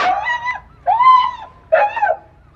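A dog whimpers three times, each a drawn-out, high, tonal whine separated by short pauses. The cries are fairly loud, with no one speaking.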